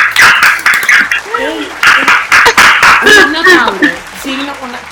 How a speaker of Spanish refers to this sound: Aplauso.